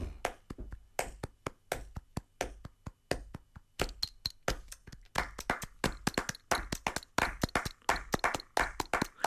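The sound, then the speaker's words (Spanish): Flamenco palmas in flamenco compás: sharp hand claps ring out in a fast, driving rhythmic pattern with accented beats, dense overlapping claps from several hands, continuing steadily with no voices. “Es mm, el arte de las palmas es, en fin, el, el compás es que mm, es, es, una, mm, es un atributo vuestro, es un privilegio de los flamencos eh, dificilísimo.”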